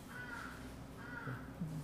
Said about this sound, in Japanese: ねカラスがね。カラスが むちゃくちゃ。